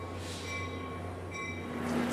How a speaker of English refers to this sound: we're standing here at the Hoboken train station in Hoboken, New Jersey